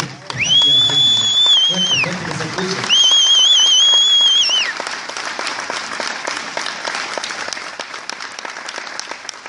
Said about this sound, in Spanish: Y pido un fuerte aplauso para este equipo.